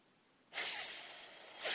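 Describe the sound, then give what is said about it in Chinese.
A hungry snake's hiss starts abruptly after a brief silence: a loud, airy, high-pitched sustained hiss that fades slightly, then swells again at the end. No talking. “正在这时，一条饥饿的蛇出现了。”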